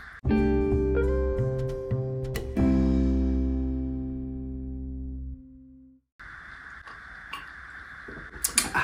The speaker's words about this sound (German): Standesgemäß, das hört ihr immer zum Anfang. Unser Klirren. So sieht das dann Unsere im Live klirrende aus. Klirrende Gläser, je nach Getränk.